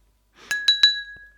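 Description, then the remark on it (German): Three quick, bright taps of a ballpoint pen against a glass for a toast, each leaving a clear ringing tone that lingers and slowly fades. Fairly loud, with no talking. “das war der Kugelschreiber.”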